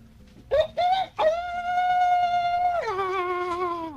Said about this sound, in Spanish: El gallo todavía está cantando.